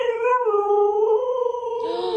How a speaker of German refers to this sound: der Hund, äh, ja, der jault